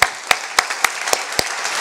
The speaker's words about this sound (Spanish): yo quiero darte un aplauso frente a todos por esa ocurrencia que tuviste.